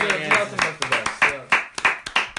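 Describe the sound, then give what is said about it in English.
A brief round of applause for an answer, made of sharp, distinct hand claps, about ten of them in a loose, uneven rhythm, with voices chattering and calling out underneath. “Yeah, round of applause for that answer.”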